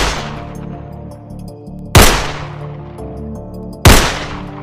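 Two loud gunshots, fired by a man alone on the fourble board platform at something unseen moving toward him, fire about two seconds apart, each cracking sharply and ringing out in a long echoing decay, with the fading tail of an earlier shot at the start.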